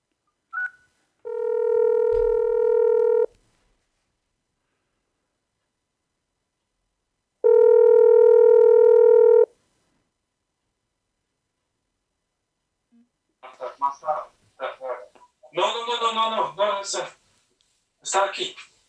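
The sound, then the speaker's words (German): A phone ringing tone plays twice over a speakerphone, each ring a steady buzzy two-second tone separated by a long pause, followed by a voice talking through the phone line. “Ich hoffe, dass ihr den auch versteht, wenn ich das hier wie eben wieder auf Lautsprecher stelle.”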